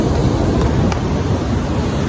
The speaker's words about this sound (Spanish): Oigan, me tuve que mover porque evidentemente Yemaya se emocionó tanto que el mar llegó a mí. Pero me encanta porque es la forma en la que Yemaya nos dice, te estoy limpiando y me llevo todo lo que ya no necesitas.